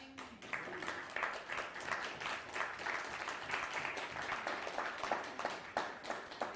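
An audience claps steadily for several seconds, a dense, even patter of many hands with sharp individual claps popping through, holding at a moderate level throughout.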